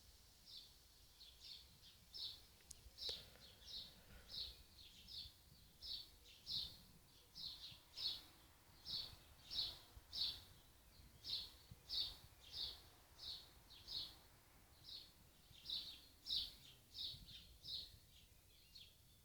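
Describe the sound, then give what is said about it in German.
Birds chirp steadily in a rapid, repeating series of bright high notes, roughly one every half second, carrying on for the whole stretch over a quiet outdoor background with no talking. “Ich glaube, ich lasse heute einfach all diese ganzen Vogelgezitscherpausen drin.”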